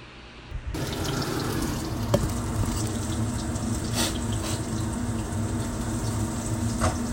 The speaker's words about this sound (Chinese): 接着呢，直接就下到锅子里面去煎了，甚至连油都不用放，因为呢，我们目标就是要让它煎出有一点稍微焦焦，所谓台语恰恰的那种感觉。